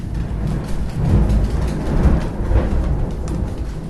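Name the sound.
thunder clap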